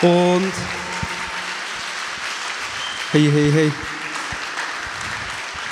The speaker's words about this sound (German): Und bitte macht nochmal einen Applaus